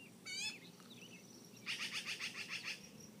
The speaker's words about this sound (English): And, um, are those birds going to be annoying?